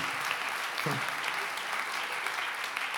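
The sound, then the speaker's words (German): Sustained applause from a group of men, a dense crackle of many hands clapping at a steady level for the whole stretch, with a brief low vocal sound partway through. “So ein großer Applaus, liebe Männer, lasst uns einen Applaus geben.”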